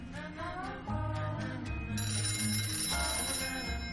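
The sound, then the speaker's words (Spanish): An old-style telephone bell starts ringing partway through, a bright metallic trill sustained to the end, layered over steady low musical tones. “Sorprendida se levanta del sillón y descuelga el auricular del teléfono.”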